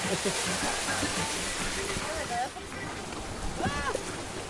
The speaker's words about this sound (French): Ah non mais il y a une cascade Ah non mais il une cascade Non mais là, ah ça va, ça s'arrête euh, Ça s'arrête pas assez, j'ai une capuche heureusement